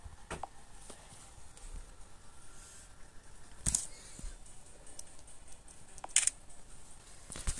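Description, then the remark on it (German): Two sharp camera shutter clicks, several seconds apart, as a photo is taken, over quiet handling noise and faint rustling. “Ich mache da jetzt auch mal einen Foto.”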